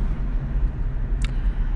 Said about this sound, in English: right now, I'm telling you, traffic's ass. And I do not like coming home in this traffic